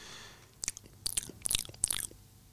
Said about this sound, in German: und schmatzend.